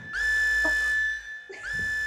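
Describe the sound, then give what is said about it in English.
A loud, high-pitched siren tone blares in two blasts, each opening with a quick upward swoop before holding a steady shrill pitch; the first lasts about a second, the second starts after a brief gap. “Uh, what's that siren you hear?”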